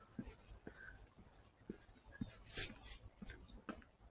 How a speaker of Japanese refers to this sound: ガサガサしてるのは鳥ですよね、ここは。